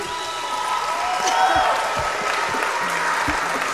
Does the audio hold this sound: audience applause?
yes